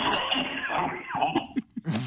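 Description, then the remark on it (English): A person coughs several times in short, sharp bursts, following a stretch of steady, muffled noise. “what in God's name was that? … coughing at all.”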